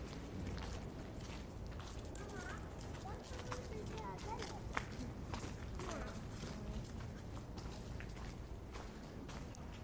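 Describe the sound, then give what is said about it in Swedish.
Steady footsteps click along the hard cobbled Västerlånggatan street while it is not very crowded, fairly crisp, with murmuring voices and bustling street ambience in the background. “Nu går jag då alltså längs med eh, Västerlånggatan.”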